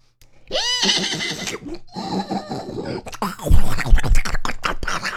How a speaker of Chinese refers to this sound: 不一会儿啊，只听得马嘶人嚎。